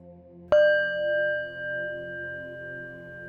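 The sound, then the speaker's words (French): A Tibetan singing bowl is struck once during a sound-healing meditation and rings on with a long, steady, shimmering tone that slowly pulses as it sustains over a low background hum. “Bol tibétain / Soin sonore”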